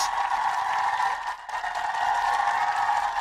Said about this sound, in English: Give her a round of applause.